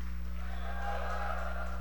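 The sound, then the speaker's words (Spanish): An audience lets out sustained, overlapping whoops and howling cries as a shout of joy to the Lord, a steady wall of joyful shouting over a heavy low hum for about two seconds. “¿Cuántos coyotes salió? No, ¿cuántos pueden darle un grito de júbilo?”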